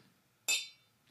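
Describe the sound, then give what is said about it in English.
A single bright clink of drinking glasses tapped together in a toast, ringing sharply and fading within a fraction of a second amid otherwise quiet. “The clink gets better at the end of the drink.”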